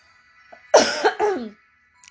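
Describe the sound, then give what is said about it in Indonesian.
A couple of harsh coughs in quick succession, loud and raspy, followed by a brief wheezy trailing breath, with no talking around them. “eh, ntar lu mau batuk lagi, gengs.”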